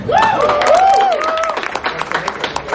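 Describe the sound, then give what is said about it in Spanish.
A live crowd at a cosplay event claps steadily for a few seconds for a cosplayer dressed as Batman, with rising whoops and cheers over the applause at the start before the clapping continues alone. “Ustedes van a medir quién está cogiendo más aplausos, porque papito se Aplausos para Batman.”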